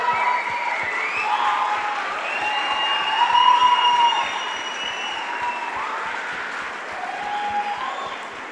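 A crowd claps steadily and densely for several seconds, with whoops and high-pitched cheers rising over the applause, swelling in the middle before easing slightly.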